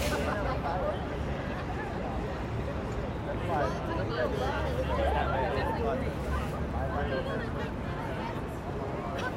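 A dense hubbub of many overlapping tourist voices fills busy Times Square, steady and fairly loud throughout, with no single speaker standing out from the crowd chatter.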